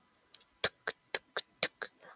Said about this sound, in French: Un trottinement.